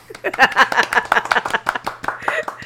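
A short burst of applause from a few people: quick, irregular claps that start abruptly, stay fairly loud and steady for a couple of seconds, then thin out slightly toward the end.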